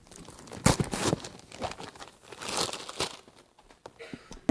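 Wrapping paper on a present crinkles and rips in several bursts as it is torn open, a loud tear near the start followed by softer crumpling and rustling, with no one talking.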